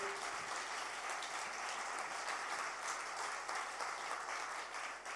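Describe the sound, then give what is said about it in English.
A church audience applauds steadily to thank people who shared their stories, a dense wash of many hands clapping at once that holds at an even, fairly loud level for several seconds before easing slightly at the end. “Why don't we put our hands together again and thank everybody that shared their story?”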